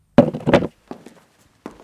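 Someone gets up out of a chair in a cabin at night: two solid wooden thunks in quick succession, then a couple of softer, lighter knocks like footsteps moving off, with no talking.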